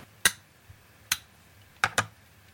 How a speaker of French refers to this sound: Le dernier son de la journée, je pense que c'est l'infini et subtil cliquetis des branches de lunettes qu'on referme et qu'on pose sur la table de nuit.